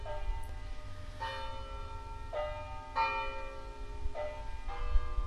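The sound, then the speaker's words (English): Church bells peal in a steady, overlapping rhythm, each strike ringing out with a rich, sustained tone over a low outdoor rumble of city traffic and wind in the Octagon city square on a beautiful day. No one speaks. “You can hear that I'm hanging out in the octagon, and it is a beautiful day.”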